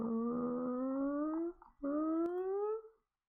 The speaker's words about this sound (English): My cat, my cat, my kitten Ali here has just been sitting at the. he's meowing at me. Can you see him?